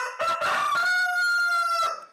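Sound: rooster crowing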